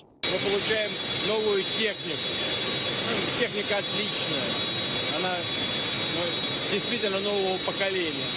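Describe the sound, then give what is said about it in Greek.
A loud, steady jet engine roar with a thin high-pitched whine from a Tu-160M strategic bomber on its maiden flight in Russia, with Russian president Vladimir Putin aboard, runs throughout while a voice talks continuously over the droning noise. “Ο Ρώσο πρόεδρο ήταν μέσα στην παρθενική πτήση του στρατηγικού βομβαρδιστικού αεροσκάφου TU-160M τη Ρωσία.”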